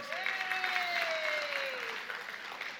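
An audience applauds steadily for a few seconds, a dense wash of clapping at an even level, with a faint tonal whine sliding slowly downward underneath.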